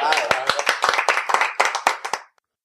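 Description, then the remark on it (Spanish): A short round of applause near the end of a radio program on Radio El Compás: loud, crisp claps in quick, uneven succession for a little over two seconds, with a voice mixed in at the start, before cutting off abruptly into silence. “¡Un aplauso!”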